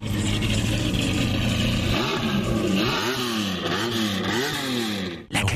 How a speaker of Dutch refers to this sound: Het was in 1990 de snelste productieauto ter wereld... met een topsnelheid van 325 km per uur. Hij haalt het allemaal uit een 5,7 eh, liter 12-cilinder. heb ik even wat geluid van.